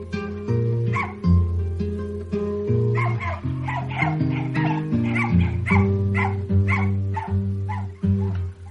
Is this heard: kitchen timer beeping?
no